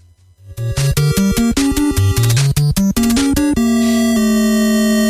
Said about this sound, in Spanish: Venga, vamos a aprovechar porque tengo aquí preparada la fanfarria. Vamos a escucharla detenidamente porque yo creo que, que nos dé escalofríos. Disfrutadla, escuchad.